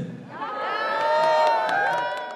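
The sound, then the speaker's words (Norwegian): Staff of Nasjonalmuseet in Oslo, Norway, cheering and whooping together to celebrate the Storting's decision to build a new museum at Vestbanen, a sustained burst of excited, high-pitched shouts and voices that swells and stays loud for a couple of seconds. “Og de ansatte feiret.”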